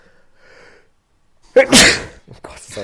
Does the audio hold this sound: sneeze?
yes